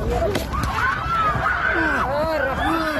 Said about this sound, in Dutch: maar er ontstond toch best wel wat paniek. Want het hele vliegtuig begon te schudden en ze waren eigenlijk al bezig met de landing. Maar iemand had een filmpje gemaakt, of een zij waarschijnlijk, en dan hoor je dus dit.